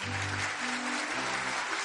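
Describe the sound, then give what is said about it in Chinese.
Steady, dense applause from the guests at a small charity gala, many hands clapping at once in a continuous wash of sound that holds an even loudness, with a faint low murmur of voices beneath it. “掌声过后，晚宴进入高潮。”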